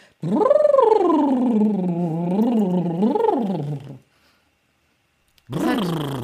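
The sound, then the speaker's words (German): A buzzing lip trill done as a vocal warm-up exercise, with a voiced pitch that slides up and down in waves for about four seconds, then a pause, then a second trill starting on a rising pitch. “Also war immer, brrr, da entspannt sich alles und du kommst stimmlich gesehen, ist auch eine super Profiübung”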